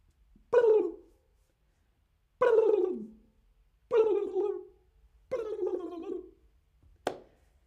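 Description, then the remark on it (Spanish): A turkey gobbles four times, each a warbling, rattling burst about a second long that trails downward, with pauses between calls and a short sharp click at the end. “Los pavos dicen glu glu en español.”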